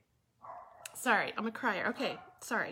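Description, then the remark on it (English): Dogs bark and yip in the background while a woman speaks briefly over them, the barking coming in short, fairly loud bursts through the second half. “Also, I just want to say sorry for the dogs in the background.”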